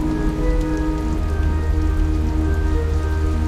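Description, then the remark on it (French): Steady, dense rain pours down with a continuous low rumble of wind beneath it, a loud, unbroken wash of storm noise on Clipperton atoll, with no voices. “Rien que de l'eau et du vent.”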